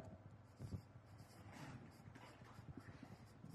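Soft scratching strokes of a marker writing the word for practitioners on a board, several short intermittent bursts over a low steady hum, fairly quiet.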